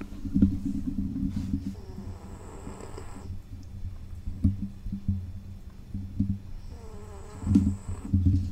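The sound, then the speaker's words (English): A fat little lap dog snores at its owners' feet in an office, a steady low rumbling drone broken by two longer, wheezy whistling breaths, with no one talking. “That's the sound of our dog snoring at our feet right now.”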